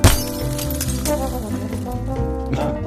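A glass bottle rings out with a sharp clinking strike at the start, followed by dense, bright shattering and tinkling glass that sustains for a few seconds, close and fairly loud, with no voices.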